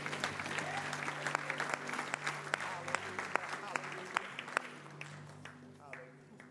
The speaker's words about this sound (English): Would you give the Lord a hand clap today as you're seated?